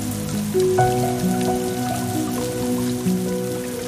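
Steady rain from a thunderstorm in the Alps falls continuously, a soft even patter blended with sustained, gentle musical tones underneath; no voices, and no distinct thunderclap stands out.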